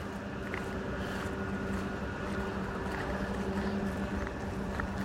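A street-cleaning machine clears wet leaves from a cobblestone street. It runs with a steady, droning engine hum and a broad wash of brushing noise, holding a constant moderate level with faint intermittent clicks throughout.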